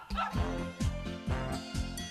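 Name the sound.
dog barking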